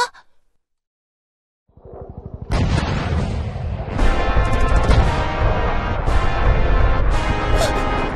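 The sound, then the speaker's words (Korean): A brief hush gives way to a loud, dense din of battle, a war: rapid bursts of gunfire layered with heavy booming explosions, continuous and chaotic, sounding muffled from behind a wall. “이벽 뒤에서 전쟁을 하나? 그럼 여기 좀 금방 뚫리겠네?”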